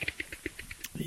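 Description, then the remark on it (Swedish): A voice mimics the spinning hard disk of a 2014 Mac Mini with 8 GB RAM and a 1 terabyte fusion drive: a quick series of about ten soft, evenly spaced hissy clicks, ending in a brief louder vocal burst. Fairly quiet. “Okej, okay, då har vi alltså en spinning disk som låter så här.”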